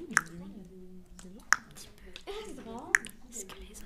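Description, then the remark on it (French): Three evenly spaced plinks, like water drops falling one by one about every second and a half, made by a voice imitating water drops dripping between the eyes of a person tied to a bed, with soft vocal murmuring between them. “Et puis le, ton, ton bourreau, il te fait couler une goutte d'eau entre tes deux yeux. Et ça fait...”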